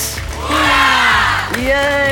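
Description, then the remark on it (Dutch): A quiz show audience breaks into loud applause and cheering for themselves after a brief lead-in, with several rising whoops and shouted voices sliding up in pitch above the steady wash of clapping. “En een applaus voor jullie zelf.”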